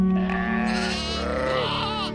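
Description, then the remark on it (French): A sheep bleats loudly, one long wavering, nasal cry lasting about two seconds, with no voices over it. “Du coin de l'œil, Paris consulte ses moutons.”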